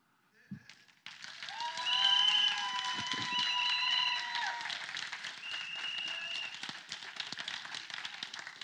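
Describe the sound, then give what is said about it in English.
A crowd bursts into loud, sustained clapping for several seconds, with shrill blasts from a single whistle rising over the applause near the start. “Matter of fact, anytime you clap, How can one whistle be louder than all these hands around here? Let's try that again.”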